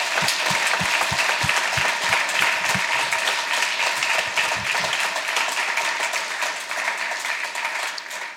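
A crowd breaks into a sustained round of applause, dense and steady clapping that stays loud throughout before easing slightly toward the end, with no talking over it.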